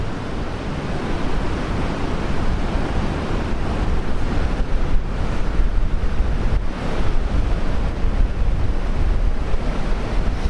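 Ocean waves roll and break on a beach in a continuous, loud roar, with gusts of wind buffeting the microphone and no voices.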